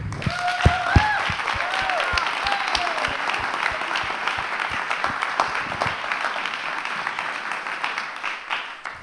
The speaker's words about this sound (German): Deswegen lasst uns wirklich vor allem mal den Leuten, ne? hier ist eine davon, aber es sind ganz viele im Hintergrund, lasst uns wirklich denen mal von Herzen einen Applaus geben.